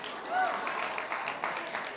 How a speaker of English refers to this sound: Thank you for the seven claps.